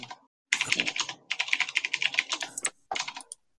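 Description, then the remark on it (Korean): Rapid clattering keystrokes on a computer keyboard, crisp, coming in three quick bursts separated by brief pauses, with no voices. “이 아, 키보드는 형님이... 그래서 누구야 이 키보드”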